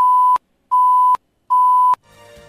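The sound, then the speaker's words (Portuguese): Three loud, steady electronic warning beeps in an even rhythm, each lasting under half a second and ending with a sharp click, followed by faint background noise; an alert signalling 10 seconds left before the end of a live radio interview segment with a candidate. “Restando 10 segundos para o encerramento do bloco, a candidata vai ouvir esse alerta.”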